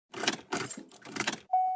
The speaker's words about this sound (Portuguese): Ué? O carro não tá ligando